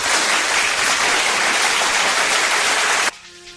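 A dense, steady burst of crowd applause, loud and unbroken for about three seconds, then cut off abruptly into a faint, brief tonal sound.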